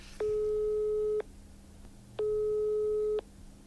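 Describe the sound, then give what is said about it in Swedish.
A phone's ringing tone while a call to the OFF coach and new Grebo player connects: two long, steady mid-pitched beeps about a second each, separated by a second of quiet line hiss, with no voices. “Jag tänkte att vi börjar att ringa OFF-tränaren och nya Grebo-spelaren då,”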